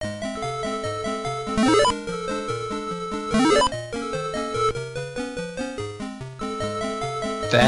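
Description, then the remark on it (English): Bright, bleepy arcade game music from a paint roller level loops at a steady bouncy tempo, with layered electronic tones and a couple of quick rising sweeps, played loud throughout. A voice cuts in briefly at the very end. “Yep, and it sounds like this.”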